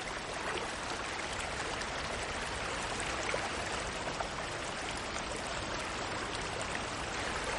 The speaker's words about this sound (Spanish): Camina por el lecho del río. El agua le llega a los tobillos.